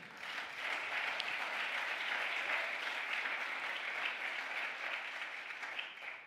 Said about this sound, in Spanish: Del otro aplauso fuerte.